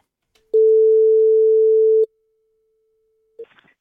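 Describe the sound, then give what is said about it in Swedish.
A single long, steady ringback tone of an outgoing phone call sounds for about a second and a half, followed by a faint click and brief rustling as the line connects. “för en stund sedan så ringde han och jag Magdalena Forsberg för att kolla läget”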